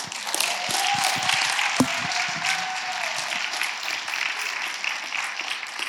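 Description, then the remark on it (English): A church audience at Life Church applauds steadily to welcome the preacher, many hands clapping together in a dense, even wash of sound that holds at a fairly loud level throughout, with no voices standing out above it. “let's give him a warm welcome as Brett comes”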